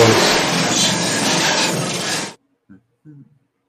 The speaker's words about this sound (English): I just heard the crash of boats into boats.